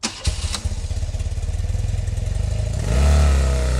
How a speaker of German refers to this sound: Da haben wir ein Motorrad.